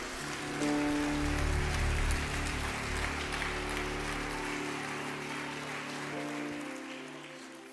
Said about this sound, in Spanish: Dile un aplauso a Jesús si quiere.